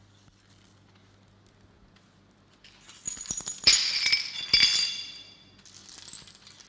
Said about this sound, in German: Und dann nimm sie, fege sie zusammen, diese Scherben